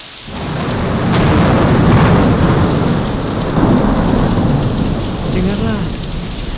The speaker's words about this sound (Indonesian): Dari waktu kedatanganmu yang ganjil, sepertinya kau sengaja memilih cuaca buruk seperti ini untuk berpergian. Saat petir menderam, kau menganggap kira-kira satu jam yang ganjil akan membentuk kesan yang menarik untuk berdagang.